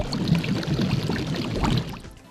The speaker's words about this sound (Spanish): Por ejemplo, si hablamos de agua, poner sonidos de agua en la intro.